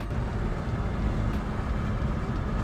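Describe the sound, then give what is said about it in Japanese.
A steady, low rumble of a car engine heard from inside the vehicle while it creeps through a heavy Los Angeles traffic jam at about 4:13, continuous and even throughout, with no voices. “現在 LA は今これを収録時は4時13分名物渋滞にはまってます”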